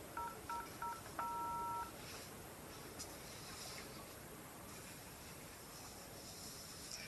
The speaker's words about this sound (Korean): 안 되겠어. 내가 직접 전화를 태호에게 좀 전화를 끄는 고우는 황급하게 태호에게 전화를 다시 건다.